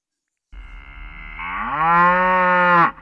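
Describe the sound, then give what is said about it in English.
A bull lets out one long, loud moo that starts low, swells and rises in pitch before cutting off, with no other sounds around it. “On the next Radio Connection Live, we'll be featuring two different bulls from two different markets both with the same format.”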